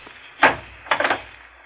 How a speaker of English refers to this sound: And don't slam the door.